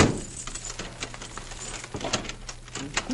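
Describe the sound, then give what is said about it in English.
A key rattles and clicks in a door lock, with a run of small sharp metallic clicks and jingles over a low steady hum; no one speaks. “Be sure the door is locked”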